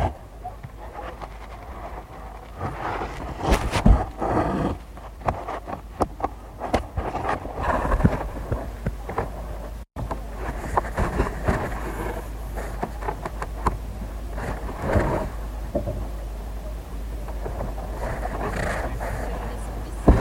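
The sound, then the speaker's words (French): Scratchy rasps of a needle drawing wool thread through an Aubusson tapestry in a tapestry restoration workshop, with repeated pulls and small catches in an uneven rhythm over a steady low rumble. “ce qu'on entend, c'est l'aiguille qui passe avec son fil de laine et qui accroche”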